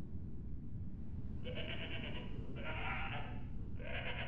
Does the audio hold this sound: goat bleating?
yes